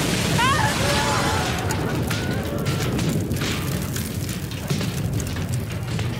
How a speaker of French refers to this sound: Immédiatement, il y a une première explosion, les lumières sont coupées.